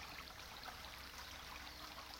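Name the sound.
babbling brook water flowing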